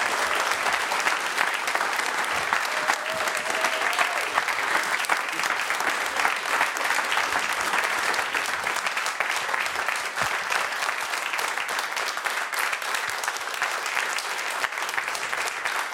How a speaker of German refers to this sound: Einen großen Applaus für David Stockenreitner. Applaus